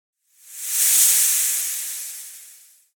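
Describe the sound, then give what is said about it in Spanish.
A person imitates a snake with a long, airy hiss that swells quickly and then slowly fades over about two and a half seconds, with no talking. “Es parte cerdo y parte serpiente.”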